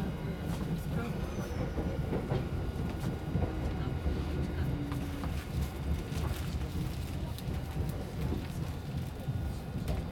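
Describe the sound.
A Tokyo metro train at Shibuya clatters along the rails in a steady, loud rumble, with sharp rhythmic clicks and rattles running through the whole stretch and faint indistinct voices beneath.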